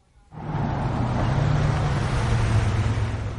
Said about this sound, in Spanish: Un coche aparca junto al monovolumen.